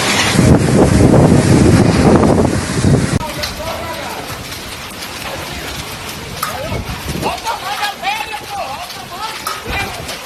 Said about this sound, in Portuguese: Imperatriz do Maranhão. Eu 40 anos de idade, nunca tinha visto na cidade de Imperatriz chover chuva de granizo, ó. As pedras de gelo aí, ó.